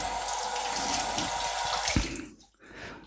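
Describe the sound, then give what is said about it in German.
Liquid is squeezed out of a relatively large grated potato, a steady wet trickling and splashing for about two seconds, then a sharp knock, after which a fainter dribble continues. No one speaks. “So, jetzt presse ich hier so ein bisschen die Flüssigkeit aus der Kartoffel, damit das Ganze nicht so lang dann im Öl darum schwimmen muss.”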